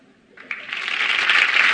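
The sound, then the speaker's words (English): A studio audience bursts into applause on cue from a flashing applause sign, the clapping starting abruptly and quickly swelling into a dense, steady wash of many hands, loud, with no voices over it. “It says applause. Ray, do me a favor. Could you flick that once?”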